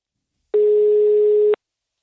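A single steady telephone ringing tone as a call is placed to an ÖBB railway worker, a mid-pitched electronic beep lasting about one second, starting and stopping abruptly against silence, with no voices.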